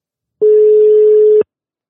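A single steady electronic telephone ringback tone while calling a person, about one second long, loud with clean on and off edges, with no talking over it.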